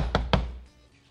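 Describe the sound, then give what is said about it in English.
Two firm, fairly loud knocks on a door as guards go around knocking on people's doors asking about spies, one quickly after the other, then a brief fading resonance and quiet. “they're going around knocking on people's doors.”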